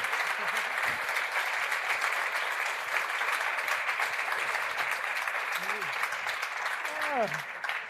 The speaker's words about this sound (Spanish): Así que un fuerte aplauso para nuestro plan C, Miguel Esteban y Joaquín Reyes, creador y estrella respectivamente de Capítulo Cero.